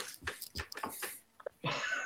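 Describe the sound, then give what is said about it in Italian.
An excited dog makes a quick run of breathy snorts and snuffles while watching, pauses briefly, then lets out a longer huffing exhale. No one speaks. “C'è il cane che si sta emozionando a guardare la frase.”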